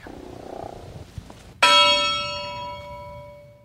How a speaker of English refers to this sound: we're sitting on a buoy that has a bell on it. And Greg just rang that bell